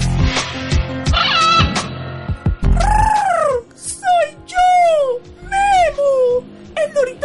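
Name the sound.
parrot squawking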